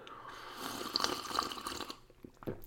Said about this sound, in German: Das sage ich Ihnen gleich nach einem frisch gezapften Tässchen koffeinhaltiger Apfelschorle. Zum Wohl.